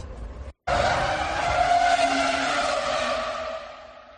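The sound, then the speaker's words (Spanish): The Formula 1 V10 engine of Alonso's R25 screams at high revs in one loud, sustained, shrill wail after a brief cutoff, holding its pitch before easing off slightly at the end. “el paddock entero se paralizó mira cómo se sentía Hamilton al, al escuchar el R25 de Alonso Oh, that sound is just so good, I mean, oh.”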